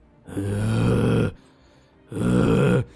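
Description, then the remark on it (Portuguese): A voice imitates a mother's loud, rasping, zombie-like snoring, two long guttural snorts with a short pause between them, harsh, with no talking. “Cara, quando eu olhei quando eu percebi o que tava acontecendo, era minha mãe roncando, velho.”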